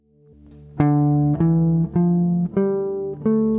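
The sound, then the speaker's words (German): The first five notes of a minor scale, played one after another on a sustained, reedy instrument. Each tone is held about half a second and the line steps upward, with no talking. “Hier ist eine Molltonleiter.”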